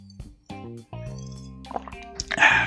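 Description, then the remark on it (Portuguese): Sipping and swallowing of water during a recording, several quick gulps in a row with wet mouth sounds, ending in a soft breathy exhale. “Dar muitos golinhos d'água, né, durante as gravações.”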